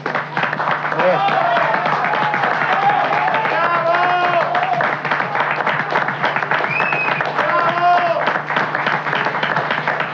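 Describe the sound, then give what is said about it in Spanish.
Sustained applause following the announcement that Domingo Cavallo has resigned, dense steady clapping with shouts and raised voices mixed in, loud and continuous for the whole stretch. “Yo aplaudo.”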